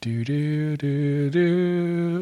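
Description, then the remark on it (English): A single voice sings a short four-note jingle on a 'do' syllable, rising in pitch, clear, mimicking the 'The More You Know' public service announcement chime. “it's the sound of a public service announcement.”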